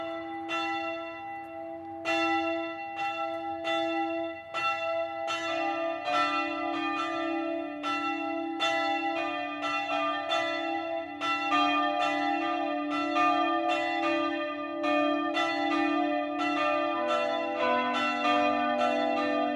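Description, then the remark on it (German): Several church bells of the Evangelical Lutheran Erlöserkirche in Nittenau, Upper Palatinate, Germany, ring together in the 12 o'clock midday peal, overlapping strikes with long, humming tones sustained throughout, steady and fairly loud with no voices. “Das Mittagsläuten kommt heute von der evangelisch-lutherischen Erlöserkirche im oberpfälzischen Nittenau.”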